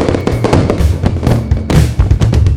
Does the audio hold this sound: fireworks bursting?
yes